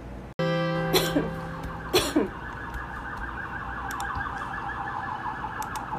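A couple of short coughs ring out over a loud, steady warbling alarm that continues throughout, with no one speaking.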